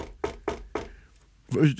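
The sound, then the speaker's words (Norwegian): Several sharp, evenly spaced knocks on a wooden table, done as a tradition, fairly loud, followed by a brief pause before someone starts speaking. “Og det er sånn Litt sånn bank i bordet.”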